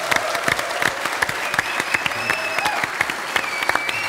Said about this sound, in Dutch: Onze mediaafdeling mensen zit overigens wel in de zaal. Ja, weet ik, weet ik. Dus, dus applaus voor de mediaafdeling.